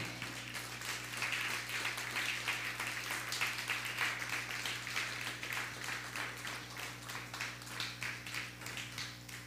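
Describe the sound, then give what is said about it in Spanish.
An audience applauds steadily for several seconds, a dense, even patter of many hands clapping at moderate volume over a low electrical hum, with no one speaking. “No, pues un fuerte aplauso.”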